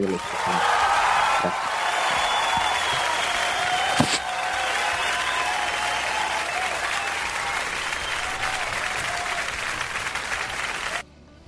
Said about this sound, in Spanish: Te eh, merecen unos aplausos.